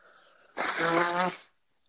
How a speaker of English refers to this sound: Sorry, I had to blow my nose. We got farts. We got nose blows.